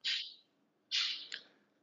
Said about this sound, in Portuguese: Que barulho é esse? É o papagaio. Ah, é o papagaio.